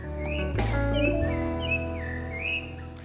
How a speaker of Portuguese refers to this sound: Hoje eu percebo o canto dos pássaros. Olha, tá cantando, ó.